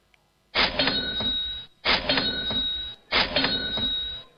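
A cash register rings up a payment for Christmas presents three times in a steady sequence, each burst a loud mechanical clatter with a bright ringing tone on top, with no one talking.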